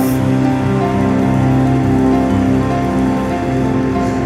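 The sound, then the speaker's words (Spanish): Sustained applause at a Christian conference in Mexico, given to welcome God to the meeting, a dense, steady wash of clapping that stays loud for the whole stretch, with sustained musical tones playing underneath and no voices over it. “¿Por qué no le das un fuerte aplauso?”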